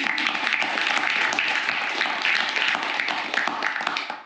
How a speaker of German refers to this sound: Sehr schön, das hat einen Applaus verdient, für dich.